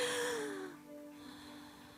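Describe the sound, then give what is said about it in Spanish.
A crowd draws a deep breath together, a broad airy rush lasting under a second before fading into quiet room tone with a faint steady hum. “When you breathe the way that you, right now that you're breathing, thank God that you're breathing.”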